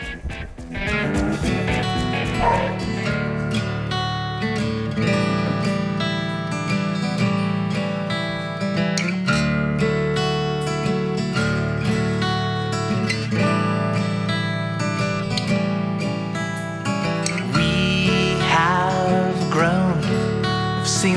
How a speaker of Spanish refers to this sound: Vamos a escuchar eh, un tema de su último trabajo